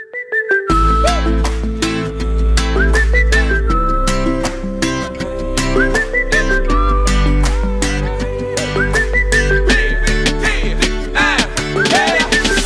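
An upbeat pop song opens with a bright whistled melody gliding over steady drums and a full bass line, loud, with no singing yet.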